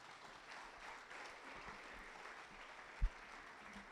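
An audience applauds for the Lord during a Spanish-language sermon, a steady wash of many hands clapping at an even, moderate level throughout, with one sharp low thump standing out near the end.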